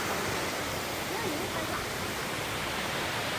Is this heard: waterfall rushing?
yes